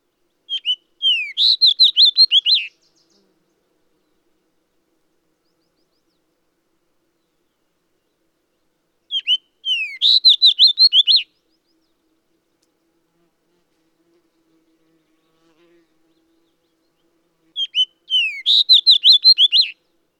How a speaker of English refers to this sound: And last but not least is the red. This subspecies is our eastern fox sparrow subspecies.